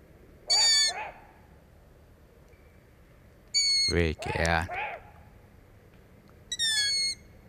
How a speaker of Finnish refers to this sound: Ja tuon sarvipöllön varoitusääni niin tuo on voimakas, mikä kuuluu taustalla. Että poikasta on lähellä, niin se on huolissaan poikasta.